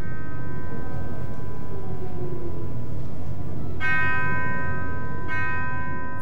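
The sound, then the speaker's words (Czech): A deep funeral bell tolls slowly from the auditorium of the National Theatre during an opera production, two strikes ringing out over a lingering hum of sustained tones and a low, murky orchestral rumble, with no voices. “do ještě z šeřelého hlediště Národního divadla vyzvání pohřební zvon. Hrana.”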